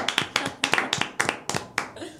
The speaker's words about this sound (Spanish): Y cerramos y le damos, un aplauso. Y hacemos un aplauso final porque realmente.